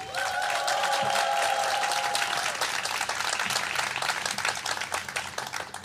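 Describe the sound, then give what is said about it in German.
A live audience at a recording, asked to make loud noise, bursts into loud, sustained applause with dense clapping throughout, and a few high whoops and cheers ring out over it in the first seconds before the clapping slowly thins. “Macht mal ganz laut Lärm, damit die Leute euch zu Hause hören.”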